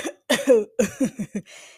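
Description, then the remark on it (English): A fairly loud coughing fit: a couple of heavy, throaty coughs followed by a quick run of shorter hacking coughs, ending in a raspy breath out. “so yeah, I might be coughing a little bit, you know, whatever.”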